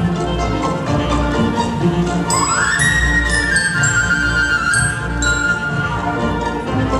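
Bright glockenspiel notes ring out high above a busy orchestral passage from Petrushka, entering partway through as a few clear, sustained chimes over steady woodwinds (piccolo doubling flute, and clarinets) and strings.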